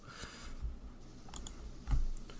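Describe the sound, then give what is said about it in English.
A handful of light, irregular keyboard clicks as someone slowly types at a computer, searching Google for a player's name, Matt Roberts, with a low background hum and no one talking. “That's why it's not coming up because I kept typing in Michael.”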